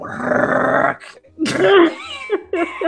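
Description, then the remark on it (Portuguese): A voice imitates a spider dragging a dog's bowl across the floor: a long, gravelly rasp, a brief pause, then several shorter grinding scrapes, loud. “arrastando o pote, Rodney, do cachorro”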